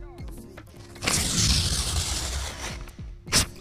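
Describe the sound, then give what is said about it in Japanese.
A sheet of paper from a desk is torn in one steady, rasping rip lasting over a second, recorded with a voice memo app as a sound sample, with a faint voice murmuring before and a brief sharp noise after. “あとまあ紙があるんだけどこの紙をね”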